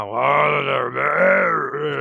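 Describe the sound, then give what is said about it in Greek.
A human voice imitates a deep, growling roar, one sustained guttural rumble about two seconds long, loud and steady with slight dips, no words spoken. “του έβγαινε βρυχισμό από πολύ βαθιά.”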